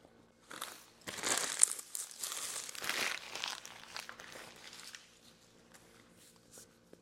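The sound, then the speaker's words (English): A paper bag used as a napkin is crumpled, a bursty run of crisp crinkling and crunching that swells for a few seconds, then fades into softer rustles. “For my audio listeners out there, that crunch you just heard was the paper bag that I'm using as a napkin because I left the napkins all over there and I've already started recording.”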